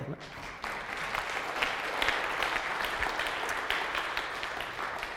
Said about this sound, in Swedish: väl värt en applåd.